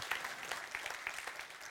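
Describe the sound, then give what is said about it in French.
A church audience claps steadily for the Lord during a sermon, many hands producing a dense, bright patter of overlapping claps at moderate loudness with no voices on top. “Hallelujah Quelqu'un applaudit le Seigneur.”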